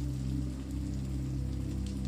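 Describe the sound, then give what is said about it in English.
Steady autumn rain patters against the window glass beside a narrow, winding staircase leading to a bell tower, a soft, continuous spray of tiny drops over a low, even hum, with no voices. “Your journey upwards is punctuated by the rhythmic splats of raindrops on the windows.”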